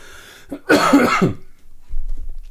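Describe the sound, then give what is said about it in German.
A harsh cough bursts out, a brief rough fit lasting under a second, preceded by a small catch of breath and followed by quiet low rustling. “Ich habe gerade wieder so Hustenanfälle.”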